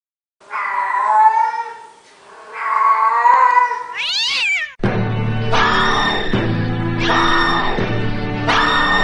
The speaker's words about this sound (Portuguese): Quem sai? Outro gato!